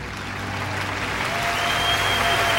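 An audience applauds steadily, a dense, continuous wash of clapping that holds at a moderate level and swells slightly toward the end, with no voices standing out.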